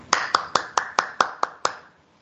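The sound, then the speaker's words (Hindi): Eight sharp, evenly spaced claps ring out in a quick steady rhythm, crisp, each with a short echo, as an audience applauds to welcome a preacher at a Christian worship gathering, before all falls quiet. “welcome भाई जी आपको और पाकरू को और खुदा को वेलकम करते हैं तालियों की गूंज में”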